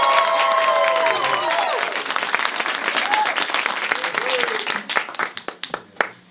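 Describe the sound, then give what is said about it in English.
A crowd applauds loudly with dense, sustained clapping and a few whoops, then the clapping thins out into scattered individual claps before fading near the end. “All right, for those that didn't clap, come here, bud.”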